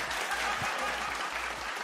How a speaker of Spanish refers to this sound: Aplausos, aplausos a los ganadores. Felicidades a los ganadores.